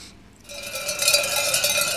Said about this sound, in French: Maintenant, on va écouter bah, la montagne, le son de la montagne. C'est les, les, cloches portées par les, moutons, notamment.